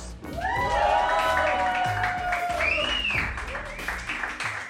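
A crowd applauds and cheers loudly, with steady dense clapping and rising, whooping shouts and whistles layered on top throughout the burst.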